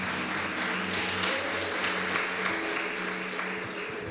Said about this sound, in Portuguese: Pode aplaudir Jesus com força, gente.